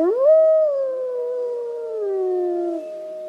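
A single long wolf howl rises quickly, then holds a steady, gently wavering tone before sliding slightly downward, clear, with no other sounds around it.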